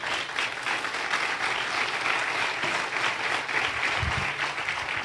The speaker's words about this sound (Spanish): Si va a aplaudir, aplauda al Señor fuerte.